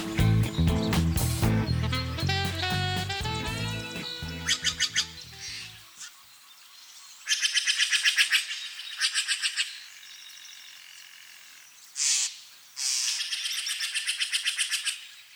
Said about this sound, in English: We leave you this week just north of Marin County, along the banks of the Russian River. Many songbirds called the Russian River home.